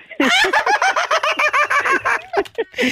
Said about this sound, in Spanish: Hasta acá se escucha el chori, el gallo de Gamaliel.